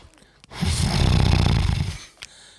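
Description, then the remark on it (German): A voice imitates a loud, rattling snore made through the nose, one sustained buzzing inhale lasting about a second and a half, followed by a brief quiet breath. “Manche kennen es auch vom Schnarchen, ne?”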